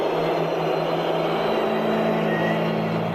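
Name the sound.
stadium crowd whistling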